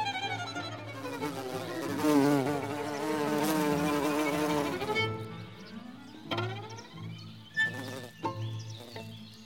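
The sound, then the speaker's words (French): Several wild bees buzz, their drones overlapping at different pitches, some deeper and some higher, rising and fading as they fly around without any talking. “Leurs différents bourdonnements, plus ou moins graves ou aigus, nous est familier.”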